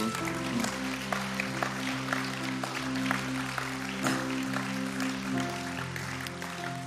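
audience applauding

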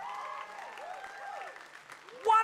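audience clapping

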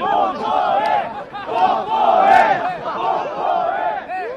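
crowd chanting

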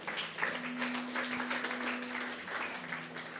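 audience clapping

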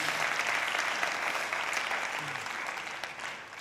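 audience applauding

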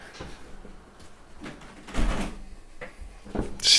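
door being shut

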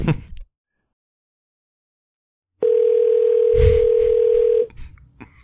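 telephone ringback tone

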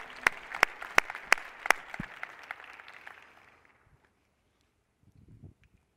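audience applause

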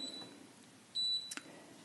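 kitchen timer beeping

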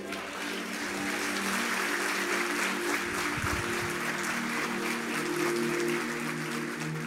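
audience applauding

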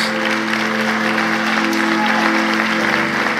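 audience applauding loudly

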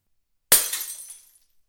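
glass shattering

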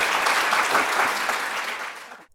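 audience round of applause

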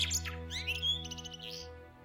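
eurasian blackbird singing

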